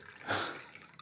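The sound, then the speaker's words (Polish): Water pours briefly into a glass, a soft splashing trickle that swells and then fades within about a second, with no voices. “To, co słyszycie, to jest nalewanie wody.”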